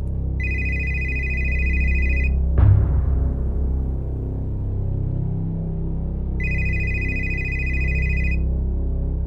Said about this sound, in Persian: تو همین فکر و خیال بودم که تلفنم زنگ خورد